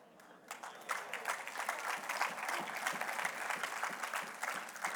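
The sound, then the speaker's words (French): An audience applauding steadily, a dense patter of many hands clapping that rises quickly after a brief quiet start and holds at a fairly even level throughout. “Donc, je prends pour acquis que tous ceux qui applaudissent vont le faire.”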